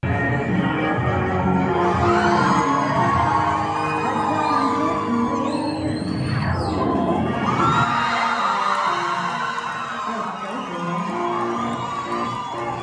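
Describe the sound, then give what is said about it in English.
A large crowd at a show cheers and shouts loudly and continuously as a new performer comes out, takes off a dress and reveals a low-cut leotard, with high-pitched whoops and screams rising over a dense roar of voices that swells midway and then settles. “Just judging from the crowd response alone, you can tell how many people were there.”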